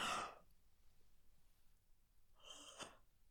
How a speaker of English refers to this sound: I think you're all a bit tired, aren't you? A big, gorgeous yawn.